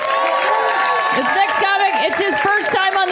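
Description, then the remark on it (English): A loud, sustained wave of audience cheering and applause for a comedian at a comedy show, with many voices whooping and shouting over steady clapping, without a break. “Tig Notaro, you guys. Let her hear it.”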